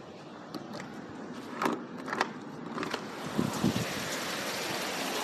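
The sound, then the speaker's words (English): Steady rain heard from inside a car: a constant hiss with scattered, sharper drops tapping over a low rumble. No one speaks. “Go towards the rain. Let's ha- see how it sounds.”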